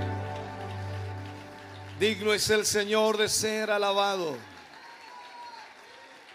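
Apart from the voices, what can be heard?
audience applause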